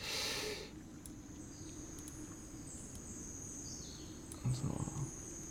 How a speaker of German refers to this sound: ich habe so ein paar kleine Waldgeräusche. Ich mache jetzt einfach die Waldgeräusche mal an, weil ihr seid ja inzwischen auch im Wald